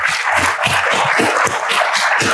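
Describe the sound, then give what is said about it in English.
A crowd claps steadily for the panel guests at the close of a discussion, a dense, loud wash of many overlapping hand claps with no voices, sustained without pause for a couple of seconds. “Let's uh, have a round of applause for all of you.”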